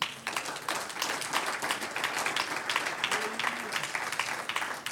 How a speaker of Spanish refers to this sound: Un aplauso al Señor.